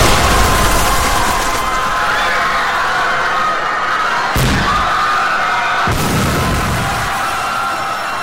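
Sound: bomb explosion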